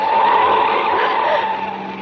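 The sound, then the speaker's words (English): A car swerves hard with tires skidding and squealing in a loud, sustained screech lasting about two seconds, with no voices. “The car twisted and swerved.”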